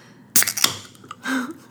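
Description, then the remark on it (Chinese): A beer bottle being opened: two sharp, crisp pops with a short fizzy hiss between them, followed by a brief low voiced hum. “好了，其实我刚刚很想用 B-box 取代再开再开另外一瓶”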